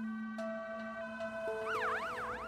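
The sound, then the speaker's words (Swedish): An ambulance siren sounds loud, from an ambulance taking a man to the hospital (lasarettet) in Kalmar, Sweden, on a Sunday in March 2005. It opens with steady sustained tones before breaking into a rapid rising-and-falling wail, with no voices. “En söndag i mars 2005 insjuknar Per-Olof och får åka med ambulans till lasarettet i Kalmar.”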